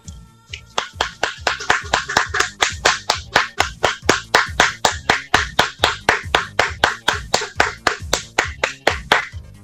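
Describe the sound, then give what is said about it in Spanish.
Steady, evenly spaced hand claps, about three per second, sharp and close, keep a regular rhythm for nearly ten seconds with no voices. “¡Aplausos, por favor!”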